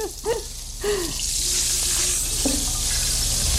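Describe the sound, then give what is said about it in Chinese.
Thawed ground meat stir-frying in a pan, put in first to render out its fat: a steady, bright sizzling hiss swells after the first second and holds, while a few short tonal scrapes and clanks of a utensil sound near the start. “广播其实还蛮难去这个呈现炒菜这样的一个动作的哈。”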